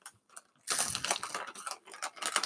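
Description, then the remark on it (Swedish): Crisp, crackly crunching of kräftchoklad chocolate being chewed, a brief quiet start giving way to a dense run of loud, bright, irregular crunches with no talking. “Hör ni hur det krispar?”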